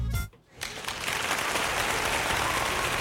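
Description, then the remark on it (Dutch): A burst of applause: after a brief dip near the start, many hands clap in a dense, steady wash of crackling noise that stays loud until the end, with no voices. “Applaus voor jou, omdat je gedurfd hebt.”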